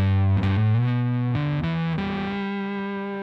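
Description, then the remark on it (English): A heavily fuzzed electric guitar, played through what looks like a Russian 1970s-era Muff fuzz pedal, plays a few sustained low notes, thick and saturated with a smooth, warm distortion, the last note ringing out steadily with no voices. “definitely looks like it is Russian, and I'm going to say like a, a 70s era muff.”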